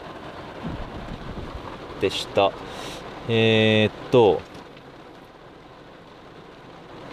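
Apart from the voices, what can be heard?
heavy rain falling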